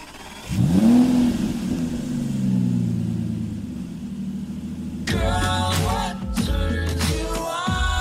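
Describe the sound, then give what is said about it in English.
A car engine revs up with a rising roar, then settles into a steady low rumble as the car is driven to work; music with bright tones starts playing over the engine noise partway through. “So for the viewers at home, here is a sound clip of Ras driving to work to what's it called?”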